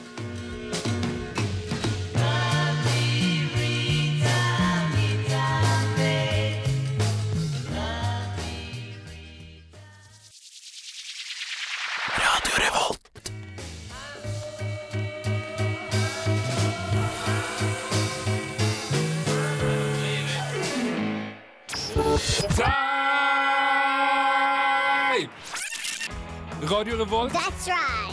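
A 1960s pop rock song plays loudly, with sung vocals over a steady bass and drum beat. Midway, a swooping, descending whoosh and a few brief breaks interrupt the band.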